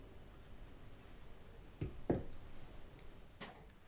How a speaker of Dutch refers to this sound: Nou jongens, laten we hem dan maar gaan klinken. En drinken.